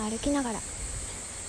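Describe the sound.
A steady, shrill drone of cicadas, including higurashi evening cicadas, fills the background without pause, moderately loud and constant, while a voice speaks briefly over it at the start.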